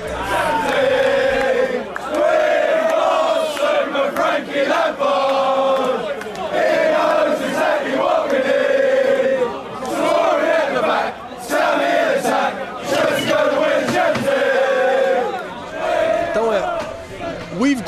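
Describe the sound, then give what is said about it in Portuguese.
A large crowd of Chelsea football supporters sings a new chant in unison, loud and sustained, with a rhythmic melody rising and falling over constant crowd noise for the whole stretch. “Eu tava no Chelsea Leicester e tem uma música nova da torcida do, do Chelsea.”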